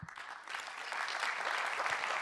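Audience applause, a dense steady patter of many hands clapping that builds slightly and holds at a constant level throughout, with no voices.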